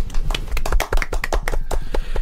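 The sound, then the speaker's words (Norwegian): A short burst of applause from a small group, given in thanks to a former producer, quick irregular claps overlapping at a steady moderate volume, lasting a couple of seconds with no talking. “Mm, en liten applaus”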